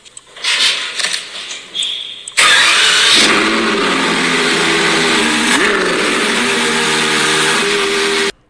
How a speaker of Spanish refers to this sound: Pues ahí oís a Carlos Sainz feliz eh, arrancando sub 812 competiciones, su nuevo coche, su nuevo Ferrari.